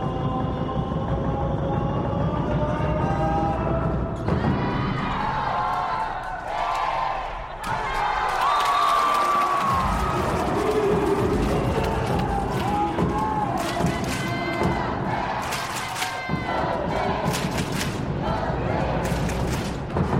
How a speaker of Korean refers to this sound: 관람하시는 분들은 시간이 지나면서 경기에 더 몰입하고 열심히 응원하고 있는데요. 한쪽에서는 한국전력의 팬들이 또 다른 한쪽에서는 현대캐피탈의 팬들이 응원하고 있습니다.